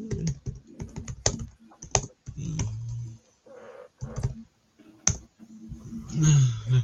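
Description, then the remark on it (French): Rapid, irregular clicking of keys on a computer keyboard, fairly loud, in quick bursts with short pauses, while faint voices murmur in the background. “On l'a écrit les trois. Je sais ah, les trois en même temps.”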